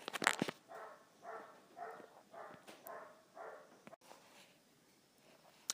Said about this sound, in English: Talking of dogs, oh my god, these dogs always bark day and night, day and night. Just mentioned them and they started barking.